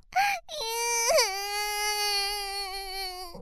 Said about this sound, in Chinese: 突然听到。呜呜呜呜的哭声